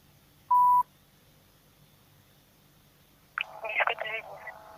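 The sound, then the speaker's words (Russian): A single short, loud telephone keypad tone beeps as the number of the Biysk media group is dialed, followed by a quiet pause and then a voice starting to speak. “Так, перезваниваем бийскую медиагруппу.”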